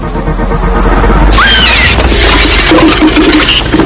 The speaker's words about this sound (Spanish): Cuando el bicho sale gritando. Compensa el precio de la entrada. El bicho de la cosa es, creo, el ápice de ese tipo de monstruo analógico de la vieja escuela. Estaba presente en el set, con sus tentáculos y sus dientes.